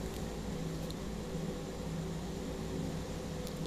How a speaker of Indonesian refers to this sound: Ini kalau ada suara yang tidak menyenangkan itu adalah suara kipas angin yang ada di dalam kamar aku. Yang harus kamu tahu, sudah pasti kipas itu tidak mengarah ke aku. Sudah pasti kipas itu akan berlawanan arah dengan posisiku.